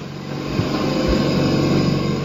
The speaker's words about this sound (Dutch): Hier is het lawaai. Hier staat, de, oh, eh, hier staat de generator.